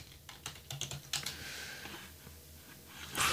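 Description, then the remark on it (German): Rapid keystrokes on a computer keyboard, a quick irregular series of crisp clicks with brief pauses, then a louder clack at the end. No one speaks. “aber deine Tastatur, da müssen wir noch dran arbeiten.”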